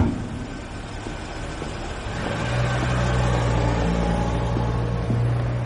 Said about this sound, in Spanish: El coche de los secuestradores entra en una calle estrecha y el taxi se pasa de largo.